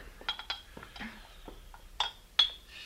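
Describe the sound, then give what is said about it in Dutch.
Glasses being refilled: a handful of light, bright glass clinks with a faint ringing tone, scattered irregularly among soft handling noises, with no one speaking. “Dan zal ik de glazen nog eens vullen, hè?”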